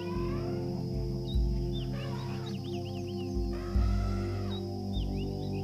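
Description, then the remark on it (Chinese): An African elephant's trumpeting call, from a group of African elephants three to four metres tall: brassy, harmonic blasts over a low rumbling drone, with a few thumps of low sound, and faint chirping birds in the background. No one speaks. “就在你沉浸在自己的思绪里时，一阵嘹亮而通透的喇叭一样的叫声吸引了你的注意力。”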